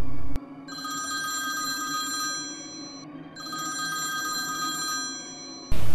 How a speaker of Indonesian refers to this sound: Handphone ibu Pak Roy berbunyi. Ternyata Samsul karyawannya yang menelpon.